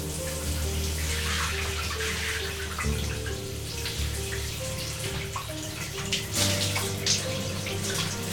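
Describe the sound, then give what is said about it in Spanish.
Hot shower water runs steadily as someone scrubs himself under it, a continuous hiss and spatter for the whole stretch, with low sustained musical tones humming underneath and shifting a few times. “Se fregó y se refregó bajo una lluvia caliente.”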